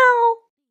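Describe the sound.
A single short, muffled meow made by a human voice imitating a cat, standing for Lihua, a cat with mouth sores in the Forbidden City, Beijing, heard behind the Gate of Supreme Harmony; a brief nasal tone lasting about a third of a second before trailing off into silence.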